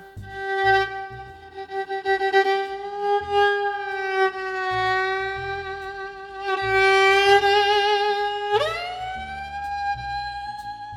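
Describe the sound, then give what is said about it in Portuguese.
A kamancheh plays long, sustained bowed notes, rich and nasal, holding one pitch with slight wavering before sliding upward into a higher note near the end, over soft low accompaniment. “Essa é para você que se perguntou por que isso é um som de violino.”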